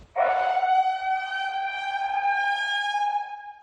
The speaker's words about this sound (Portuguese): Salvador entrou em estado de alerta máximo de manhã por causa do grande volume de chuva em 72 horas. Em sete comunidades que ficam em áreas de risco, sirenes foram acionadas para que os moradores deixassem as casas imediatamente.